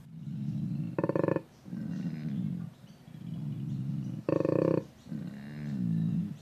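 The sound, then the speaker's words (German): A koala named Thunder from Down Under at Taronga Zoo bellows, with deep, rasping snore-like rumbles broken twice by louder, harsher grunting bursts, repeating in a slow, heaving rhythm. “Der Klang von Thunder from Down Under, so der donnernde Name des Tieres im Zoo von Taronga.”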